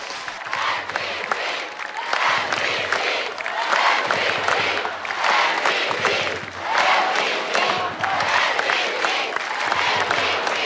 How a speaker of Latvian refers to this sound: Nu, Pūlis kliedz MVP, jeb vērtīgākais spēlētājs. Droši vien ļoti pelnīts par viņa sniegumu šajā pasaules kausā.